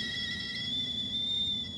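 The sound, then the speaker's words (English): A tin kettle whistles atop a pot-bellied stove, a steady, shrill, unbroken tone held for the full stretch over a faint low rumble, with no voices. “They both turned to look at the tin kettle whistling atop the pot bellied stove.”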